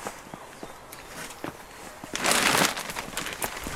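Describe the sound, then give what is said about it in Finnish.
Footsteps crunch along a garden path at a steady walking pace as people walk over to another planting, with a louder scuffing burst of gravel or leaves midway through. “Täällä on se toinen istutus. Mennäänkö tonne?”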